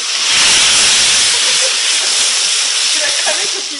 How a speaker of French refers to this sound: là c'était donc la flambée des cailles